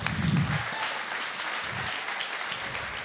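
A crowd applauds loudly and steadily to welcome a guest onto a stage, a dense wash of many hands clapping at once that holds an even level for the full three seconds, with no voices on top.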